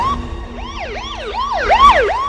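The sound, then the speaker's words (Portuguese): An ambulance siren yelps in quick rising-and-falling sweeps from an ambulance being driven, loud, growing slightly stronger toward the end over a low rumble of traffic. “Eu tava na minha ambulância dirigido pro pai do, do Nelson Costa, o seu Tadeu, seu Josias.”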